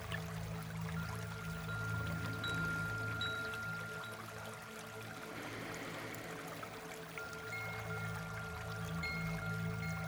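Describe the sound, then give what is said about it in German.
Soft, continuous flowing water pours steadily without a break, fairly quiet and even throughout, with a faint sustained tonal drone humming underneath. “Niemand kann das Wasser aufhalten, wenn es fließt. Es fließt so, wie es will.”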